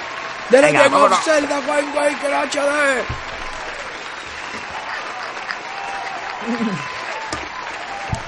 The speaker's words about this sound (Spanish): El mejor juego que me he pasado este año te lo voy a decir. he tirado un aplauso de júbilo ahí al tirón.